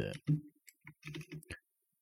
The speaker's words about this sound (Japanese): 今ふっと思い出したんで、あの、ちょっとあの、キーボードの音うるさいですけども、はい。